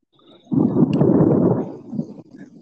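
A deep, rumbling roll of thunder under an overcast sky that looks about to rain swells up suddenly and holds for about two seconds before fading, heavy and low, with no voices over it.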